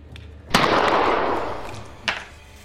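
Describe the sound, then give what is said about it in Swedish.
Two sharp shots from a .32 handgun ring out, the first loud with a long echoing tail, the second quieter about a second and a half later, both standing alone without talk. “Men när jag hör att han skjuter det här nu”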